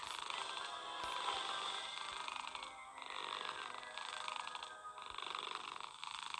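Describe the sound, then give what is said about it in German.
A cat purring steadily for several seconds, a continuous, slightly rasping rumble with gentle rhythmic swells, fairly soft, with no voices over it. “Mann, wie süß das ist, die Schnurrt.”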